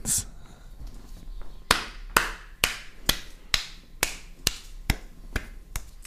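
A string of about ten sharp hand claps by a boy in a steady, fairly quick rhythm starts after a brief quiet moment, each clap crisp and bright with no voices over them.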